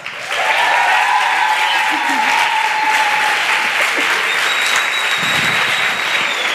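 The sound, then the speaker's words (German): A live crowd bursts into sustained applause and cheering to welcome a guest, loud and dense throughout, with whoops and high whistles rising above the steady clapping. “Macht mal richtig Lärm”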